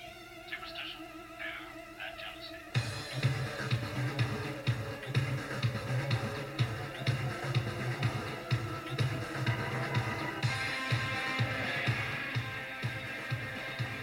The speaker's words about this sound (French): Pour tous les métalleux de la planète, vous avez peut-être reconnu la musique.